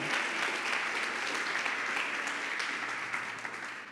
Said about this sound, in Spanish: Bueno, si le vas a aplaudir, apláudele con todo tu corazón.